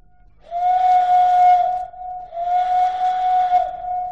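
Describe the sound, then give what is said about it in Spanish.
A locomotive whistle, sounded by someone pulling on it, gives two long, steady, loud blasts with a brief gap between them and no voices. “¿Quieres hacer sonar el silbato?”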